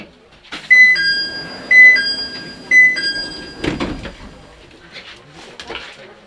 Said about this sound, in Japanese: 左右両側の扉が開きますご利用になられます施設側のドアよりお降りください